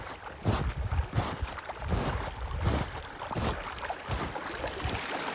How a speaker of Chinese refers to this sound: 当我在房间的窗边休息的时候，我突然听到了一阵阵水流声从窗外传来。打开窗户往外探，发现在不远的地方有一条冰雪融化而形成的小溪。